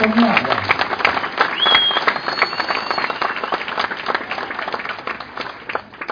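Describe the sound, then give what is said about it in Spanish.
An audience at a talk applauds steadily for several seconds, a dense patter of many hands clapping at a fairly loud, even level with a few brief whistles or cheers mixed in. “Tienen que aplaudir más para que yo”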